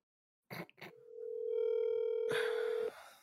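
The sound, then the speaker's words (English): A phone line rings out with a single long, steady electronic tone lasting about two seconds, preceded by a couple of sharp clicks, with a rush of noise joining near its end. “Can you oh, call him?”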